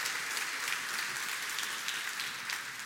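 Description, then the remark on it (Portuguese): An audience at a church service applauds steadily in answer to a call for a loud round of applause, a dense wash of many hands clapping at an even, sustained level with no voices or pauses throughout. “Quem quer passar por essa experiência, dá uma salva de palmas aí bem alto É o nosso Deus em nome de Jesus.”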